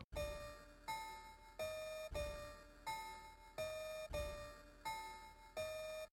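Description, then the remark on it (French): A piano note passed through a rate limiter, struck about eight times in steady succession, alternating between two pitches, with harsh, metallic, bell-like overtones from aliasing distortion folding back into the high frequencies above each tone. No one speaks. “Donc au lieu d'être harmonique, on entend euh, un son qui se surimpose dans les aigus et qui va donc se replier en quelque sorte, ce qu'on appelle euh, repliement spectral ou aliasing.”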